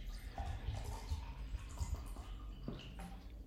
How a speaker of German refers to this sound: Apropos, ich schütte mir mal noch etwas Wasser ein.